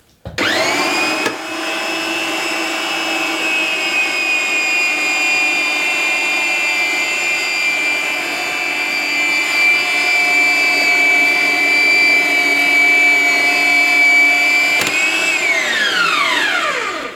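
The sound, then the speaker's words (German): A loud motorized threading machine cuts a thread onto a pipe, with metal shavings falling off, a steady whining drone with strong harmonic tones that holds for about fifteen seconds, then winds down in a falling whine. No one speaks. “Dafür brauchen wir das Gewinde, das schneiden wir jetzt hier rauf und die Engelshaare fallen runter und sind, ist quasi das, was wir abschneiden, ne?”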